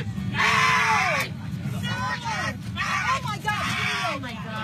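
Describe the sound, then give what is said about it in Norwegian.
Several distressed airplane passengers shout and cry out over a steady low rumble of the cabin, with rising, wavering yells overlapping, as a middle-aged man is dragged down the aisle of United flight 3411 in the USA. “Sjokkerte medpassasjerer roper mens en middelaldrende mann blir slept nedover midtgangen på Uniteds avgang 3411.”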